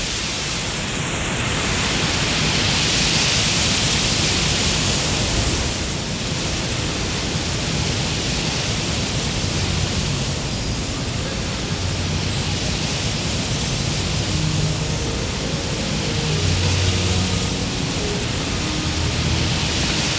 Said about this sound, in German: klingt wie Wind. Windig. klingt wie Wind, der durch Schilf fährt. Windig.